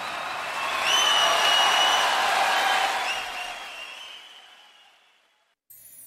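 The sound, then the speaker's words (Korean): A burst of crowd applause swells quickly, holds steady as a dense wash of clapping with a few high whistles, then gradually fades away over several seconds. “큰 박수 함께 즐겨주시죠.”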